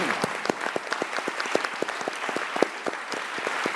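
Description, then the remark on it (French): An audience applauds the supervising teacher: steady applause, a dense patter of many hands clapping at a brisk, even pace with sharp individual claps standing out, sustained and moderately loud throughout. “Alors on peut l'applaudir lui aussi.”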